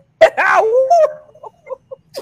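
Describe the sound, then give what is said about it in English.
A person gives a brief mock wolf howl, a single loud voiced wail that slides up then down over about a second, followed by a few faint scattered sounds. “All right, lone wolf in the house. We got a nice long howl.”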